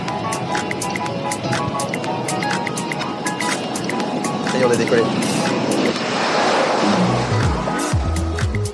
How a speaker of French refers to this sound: Il roule bien longtemps, je trouve. On arrive en bout de piste, non Merde Ça va pas tirer comme ça, vous m'avez fait peur. Pourquoi il décolle pas ce putain d'avion